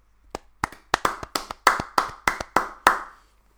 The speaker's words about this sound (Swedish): Jag tycker det, det kanske är dags för dagens applåd redan nu faktiskt. Ja, vi kör.